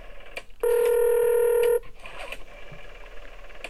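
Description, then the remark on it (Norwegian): A steady telephone dialing tone sounds loudly for about a second as someone places a call, a flat electronic beep with a sharp start and stop, surrounded by faint background clatter and noise. “Vi må på en måte, vi må i hvert fall ringe han, da.”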